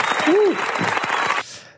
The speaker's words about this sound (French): On applaudit. Bravo.